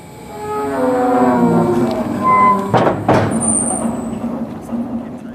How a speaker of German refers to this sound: So also klingt es, wenn das Tor am Bundeskanzleramt in der dafür vorgesehenen Versenkung verschwindet. Bei dem Quietschen wäre wohl eine Wartung fällig.